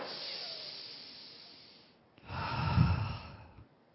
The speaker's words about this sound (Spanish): Cien veces al día. Ah, así que tú no pases cien veces al día una sola respiración profunda.